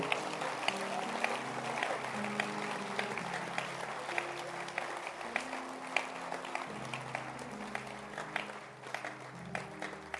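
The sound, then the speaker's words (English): A large church audience applauds steadily for about ten seconds, dense overlapping claps at a fairly loud, even level, with a low tonal drone running underneath. “Let's clap our hands for them. I'll keep clapping.”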